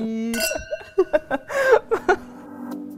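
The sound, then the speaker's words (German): Glasses clink together in a toast and ring out with a bright, sustained tone; soft chuckles and short breathy sounds come between the clinks before the ringing fades. “Prost.”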